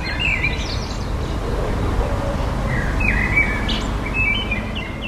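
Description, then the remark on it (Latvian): Several birds chirp and sing intermittently in the quiet of a yard by a house, over a steady low rumble of background noise. “piemājas klusums.”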